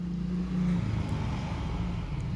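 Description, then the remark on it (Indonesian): A motorcycle passes by with a steady, low engine rumble that holds fairly constant for a couple of seconds, a faint whine rising and falling over the drone, with no talking. “motor lewat gak apa”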